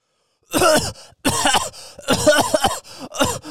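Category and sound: vocal imitation, voice imitating coughing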